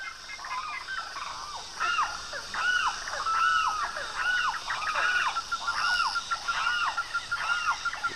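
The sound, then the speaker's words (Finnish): Dense rainforest ambience: repeated rising-and-falling bird or frog calls overlap in a steady chorus, layered over a constant high insect drone, with no talking. “Kävelet sademetsän sisällä, niin lintujen, sammakoiden, hyönteisten äänet, niin, niin ne kaikuu kaikkialla”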